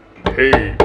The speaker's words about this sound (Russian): Я хочу прям взять ее в руки, постучать по ней, услышать этот звук. Мне очень нравится звук толстых книг, когда ты по ним стучишь, такой